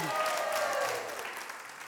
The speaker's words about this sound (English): Oh, come on, you can clap. I know you, I know you clapped.